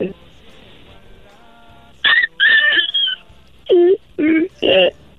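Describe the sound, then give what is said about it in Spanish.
After a brief quiet stretch, a person voices about six short, whiny yelps in quick succession, imitating a whimpering puppy, fairly loud. “¿Puedes hacer el ruido del perrito otra vez?”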